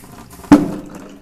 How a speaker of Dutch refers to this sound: Maar dat mag wel een keer, want eh, ik ben even oploskoffie aan het maken. Ik schenk dan wat kokend water uit de kokend waterkraan.